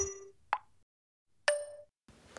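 A phone's message notification chime sounds twice, about a second apart, as a sent message arrives: short, bright, bubbly pops with clear tones, fairly loud, with no one speaking.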